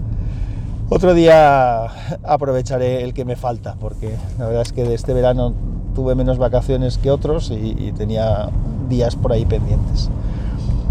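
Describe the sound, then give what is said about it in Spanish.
A steady low rumble of road noise inside a moving car runs continuously beneath a man's clear voice as he talks throughout, recorded with a lavalier microphone. “Bueno, pues lo digo porque se escuchará el ruido de fondo, del coche y demás.”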